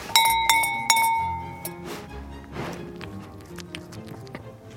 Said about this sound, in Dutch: En, en Tommy, die hier staat met die bel. Tommy, ik ga even met je bel spelen.